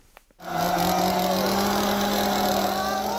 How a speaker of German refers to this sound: In einem Vorort von Buenos Aires zückt ein Mann eine Motorsäge inmitten einer Menschenmenge und lässt sie laut röhren.